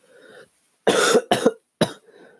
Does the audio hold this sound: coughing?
yes